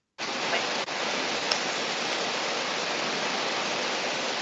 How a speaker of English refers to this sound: Oh, there it is now, the static. Yeah. Yeah, you're gone. Is there anything you can do to stop all that noisy stuff?